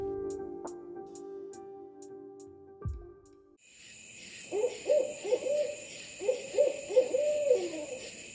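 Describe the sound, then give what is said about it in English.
An owl hoots in two quick runs of soft, wavering calls over a steady high buzz of night insects, after a few seconds of low humming drone. “Owls are age old symbols of wisdom and knowledge, but they're also fascinating, elusive birds.”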